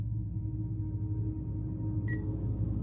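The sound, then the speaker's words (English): A single short electronic beep like an alarm clock, high and clear, sounds near the end in a hospital over a steady low droning hum that runs throughout, with no voices. “A beeping sound like an alarm clock woke me up as I tried to sit up and find the source to shut it off.”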